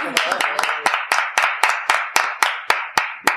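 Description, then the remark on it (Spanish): Steady rhythmic clapping, roughly a dozen sharp claps at an even pace, with a brief murmur of voices under the first few beats. “Un aplauso, por favor”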